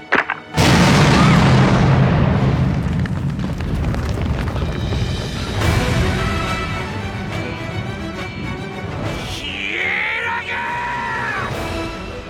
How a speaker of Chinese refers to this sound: 只见时钟指针归零，随着一声剧烈的爆炸声，教室爆炸了。